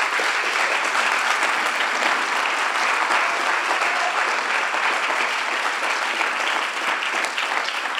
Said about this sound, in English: Let's give the Lord a round of applause with all of our heart.